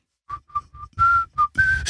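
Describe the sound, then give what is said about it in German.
Someone whistles a short tune of six clear notes: three brief, evenly spaced tones, then longer, higher ones rising toward the end. It's fairly loud, with no talking. “Und manchmal, manche Leute gehen an mir vorbei und dann plötzlich fangen die an zu pfeifen.”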